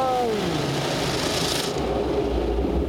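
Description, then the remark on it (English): Heavy rubbing and scrubbing as car wash mops sweep across a car body, a broad rasping swish that rises mid-clip before settling into a lower rumbling wash, steady, no voices. “The mops and the hair.”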